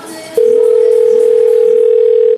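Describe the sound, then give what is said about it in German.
A steady, loud telephone dial tone, as someone phones the police, begins after a brief moment of background noise and holds continuously for about two seconds before cutting off. “Und äh, jetzt rufe ich mal die Polizei an, ne?”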